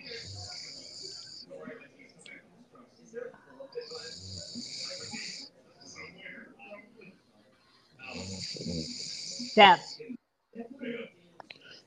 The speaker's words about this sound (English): It, again, it's it, it sounds like it's snoring. that's not. I know, but it sounds like it is on my end.